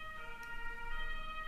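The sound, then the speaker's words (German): An ambulance siren sounds as the ambulance drives past, a steady high-pitched tone holding through the brief moment at moderate volume with faint road rumble beneath and no talking. “Hier fährt gerade irgendwie ein Krankenwagen vorbei.”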